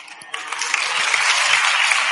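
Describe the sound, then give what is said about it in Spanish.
An audience in a parliament breaks into steady applause, many hands clapping in a dense, continuous patter that swells after a brief start and stays loud and sustained throughout. “¡Y le aplauden.”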